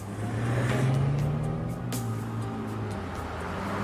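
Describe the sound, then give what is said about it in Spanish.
A car engine roars as a fugitive's car speeds away from pursuing agents, its pitch climbing as it accelerates, then holding a steady, loud drone amid a wash of heavy-traffic road noise. “Los agentes lo siguieron, pero el fugitivo desapareció entre el fuerte tráfico.”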